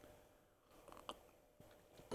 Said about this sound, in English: ceremonial sip from the chalice there